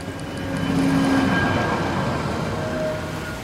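A train rumbles steadily along the rails, fairly loud, with a broad rolling roar and faint metallic squeals riding on top, swelling slightly and then easing.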